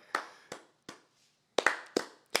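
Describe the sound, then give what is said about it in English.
Hands clap a school morning chant rhythm: three evenly spaced claps, a short pause, then a quicker run of about four sharp claps, crisp and fairly loud with no voices. “They would make us clap our hands.”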